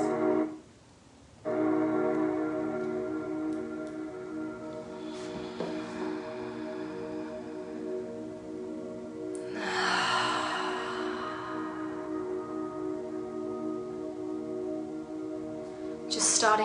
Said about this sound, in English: And we're gonna bring our focus to a natural breath. And we're just gonna start breathing deep into our bellies.